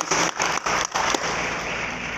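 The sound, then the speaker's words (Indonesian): A crowd claps together as applause given for God, a dense, crackling wash of many hands that starts with a few uneven surges and then settles into steady, loud applause with no voices. “Boleh kita berikan tepuk tangan bagi Tuhan”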